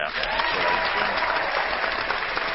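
A man applauds himself: steady, fast clapping fills the whole two and a half seconds, a dense, even patter of hand claps at a fairly loud, constant level with no pauses and no talking.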